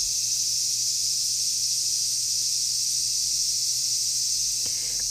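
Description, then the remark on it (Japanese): A dense, loud chorus of cicadas drones steadily throughout, a continuous high-pitched buzzing wall of sound with no pauses and no one talking, heard at a house next to a forest at the peak of the cicada season. “セミたちの大合唱ですけど、えー、我が家は森に隣接しているのでもう本当に今がすごい盛りですねもう一日中こんな感じあのセミの声を聞きながら家にいます、えー、幸せです”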